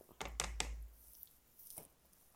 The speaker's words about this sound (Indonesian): ini dicacah sampai halus banget kalau okay. bisa lebih halus dari di blender